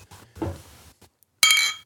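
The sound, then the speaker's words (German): Glasses clink together in a toast: one bright, ringing chime near the end that hangs and fades, preceded by softer handling and thumping noises. “Boah, das klang aber schön. Das klang toll, oder? Ja. Wow. Prost”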